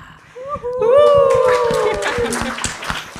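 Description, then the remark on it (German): A dog at a bar lets out a single long, drawn-out bark that stretches into a wavering howl, loud over a busy crowd murmur with scattered clicks and claps, as a reading celebrating the third anniversary of Drama Carbonara begins. “Ah, also nachdem wir jetzt von den Kirchenglocken eingeläutet wurden und von dem Hund an der Bar eingebellt, äh, ist es Zeit für das Fest, für die Lesung zum dritten Jubiläum von Drama Carbonara.”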